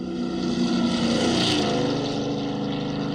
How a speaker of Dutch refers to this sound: Wat je nu hoort is het Doppler-effect. Dat ken je waarschijnlijk wel. Eh, als licht, maar ook geluid uit een bewegende bron komt, dan verschuift de frequentie.